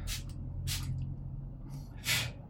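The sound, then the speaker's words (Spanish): Four quick hissing spritzes from a spray bottle misting onto a person's face, evenly spaced. The third is softer and the last is the loudest, all over a low steady background hum. “Me estoy echando spray en la cara.”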